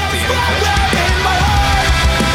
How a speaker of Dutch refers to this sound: ik wil één ding laten horen van deze track. Er zit een fluit solo aan het eind.